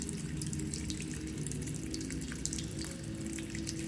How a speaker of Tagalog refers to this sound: Ang lagaslas ng tubig mula sa hose at ang pagbangga ng ginagamit kong tabo sa pag-iigib ay lumilikha ng kakaibang tunog na pilit na bumabasag sa lumalalim na katahimikan.